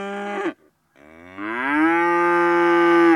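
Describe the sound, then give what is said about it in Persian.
A large cow that has just given birth to a calf, panicked and chasing villagers, moos twice, loud: a short low call that breaks off, then after a brief pause a long, rising, sustained moo that swells and holds to the end. “گاو بزرگی که تازه گوساله به دنیا آورده بود رم کرده بود و دنبال اهل آبادی میدوید”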